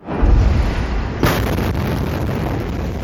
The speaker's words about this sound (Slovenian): Najprej je bilo videti gozd dim, sledila je silovita eksplozija, ki je uničevala vse pred seboj. Čutili so jo celo 200 km stran na Cipru.